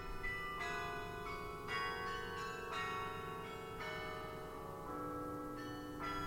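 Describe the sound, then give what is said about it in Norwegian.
Carillon bells ring out a melody, successive struck notes overlapping with long, shimmering decays in a steady tune, sounding resonant with no voices present. “Altså, jeg spiller gjerne alle sjangere, og jeg syns det er kult at alle mennesker hører den musikken de er glad i på klokkespillet.”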